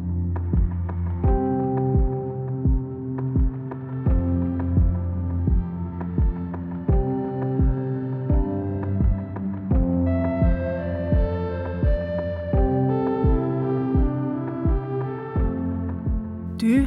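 Instrumental music with a steady, throbbing low beat pulsing at a regular tempo under sustained tonal chords, played alone with no voices, at a moderate, even level throughout.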